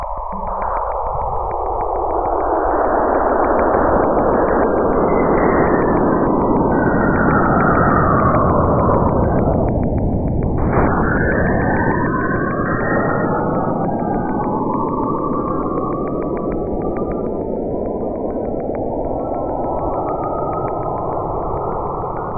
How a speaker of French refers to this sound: Et toute planète a un son que l'on aura l'occasion d'expliquer et d'écouter dans ma prochaine chronique. Pour l'instant, écoutons le son énigmatique de Saturne.